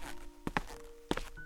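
A man's footsteps walk up to a woman and stop in front of her: four firm, thudding steps in two quick pairs, over a faint steady hum, with quiet afterward.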